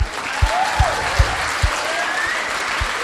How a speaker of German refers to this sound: Eigentlich mal Applaus.